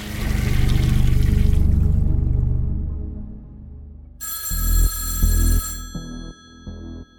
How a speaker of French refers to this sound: Le téléphone sonne dans le bureau de Suzanne Antoine.